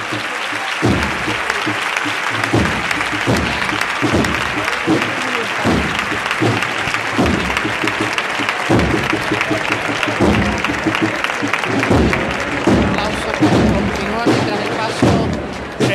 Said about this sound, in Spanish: La, gente aplaude enfervorecida, ¿eh? Sí, sí, pero es que seguían aplaudiendo el paso